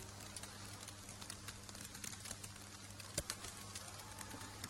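Hens cluck softly and intermittently while snow falls, faint against a steady low hum and a light patter of background noise, with no one speaking.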